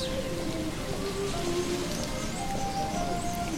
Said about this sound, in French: il y a aussi un son qui se dégage avec le vent